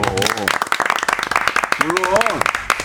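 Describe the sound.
A short burst of lively applause, many hands clapping in a quick, dense patter, with voices talking and exclaiming over it.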